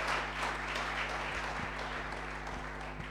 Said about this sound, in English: Can we give a powerful clap offering to Jesus?